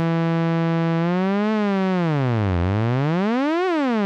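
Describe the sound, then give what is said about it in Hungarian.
A loud electronic synth tone holds steady, then swoops up and down in smooth sliding sweeps, a wobbling sci-fi chirp like a UFO landing, with no voices. “Igen, az ufók leszálltak a mezőn, és coca isznak.”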